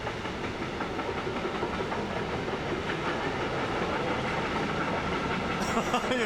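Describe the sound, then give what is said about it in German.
A long freight train rumbles steadily past, a dense, continuous roar of wheels and rattling wagons with faint clickety-clack, holding loud throughout with no voices. “Das ist jetzt ein Güterzug, der ist mehr als schwarz, also da sehe ich wirklich gar nichts.”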